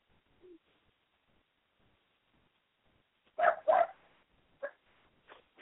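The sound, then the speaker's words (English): A dog barks after a quiet stretch, two quick barks close together followed by a few shorter yips, with a faint whine near the start. “And I hear some dogs uh, barking in the background here, so uh I guess they want to.”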